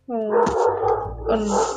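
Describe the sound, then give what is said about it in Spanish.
A dog barks and yelps in two loud, drawn-out bursts with a whiny, tonal edge, over a low steady hum in the background. “Ala, este mi perro, ¿qué le pasa? a estar pasando un perro”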